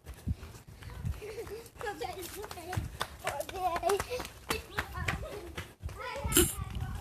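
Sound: children playing outside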